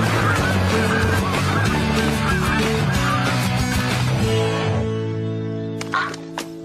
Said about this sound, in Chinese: 没错，是野雁。呜呜呜呜呜呜，野雁来喽！